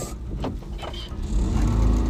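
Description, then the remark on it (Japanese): A kei truck's engine drones steadily while it is being driven, a low rumbling hum with road noise that swells louder in the second half, heard from inside the cab. “正直ね、まあ、車高が全然違うんですけどこの今乗ってる軽トラとねあのその時のね67のワーゲンがね目をつぶるとねほんとねこの軽トラがワーゲンに思いて仕方がないですね”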